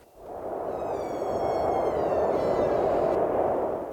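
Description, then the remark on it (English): A comet-approaching sound effect in a song: a steady, loud rushing roar that swells in over the first second, with high whistling tones gliding above it, heard on its own without voices. “That's the sound of the comet coming.”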